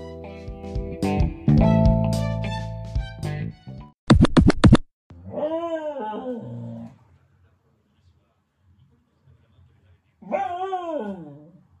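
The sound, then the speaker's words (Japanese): A Hokkaido dog, Toichiro, whimpers in two separate bouts of high, wavering whines with a quiet gap between them during a morning walk on the Toyohira River riverbank, after a short burst of musical tones at the start. “北海道犬《北海道狗》 北海道之聲”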